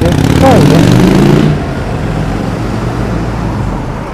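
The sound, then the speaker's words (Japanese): A large motorcycle roars past at a street crossing with traffic lights, recorded from a little distance away, its engine loud and rising in pitch for about a second and a half before fading into a steady wash of street traffic. “今で言うとすごく大きなバイクとかが通ったりとかしてこういうのは多分めっちゃ音入ってんだろうなって思ったりトラックとかバイクは結構大きな音になることが多い感じですよね大型トラックとか”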